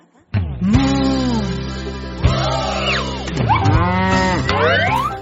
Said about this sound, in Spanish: ¿Y cómo hace la vaca?